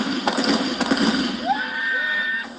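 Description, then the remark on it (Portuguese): A few sharp rifle shots, fired into the air, crack out in quick, uneven succession early on, over a steady background hum with a thin rising whine afterward. “Ele também pede que alguém o filme fazendo disparos para o alto com um fuzil.”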